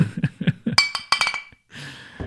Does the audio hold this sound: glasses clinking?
yes